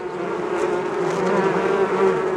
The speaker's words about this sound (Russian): и на фоне моего голоса песня пчелиного роя.